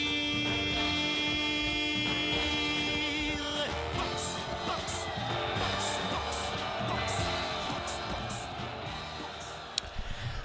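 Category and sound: french chanson song playing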